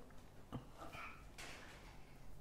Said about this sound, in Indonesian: Oke. Okay. Oke, okay, tutup pintu.